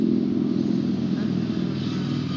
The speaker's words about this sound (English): Yes, motorcycles.